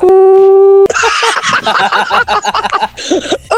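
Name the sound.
telephone busy tone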